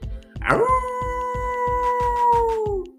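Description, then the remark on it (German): A voice imitates the howl of Aka the wolf, a story character: one long, loud howl that swoops up and then holds a steady pitch for over two seconds before tapering off, over a soft, regular low thumping beat. “Äh, wie der Wolf Aka macht? Soll ich es mal machen?”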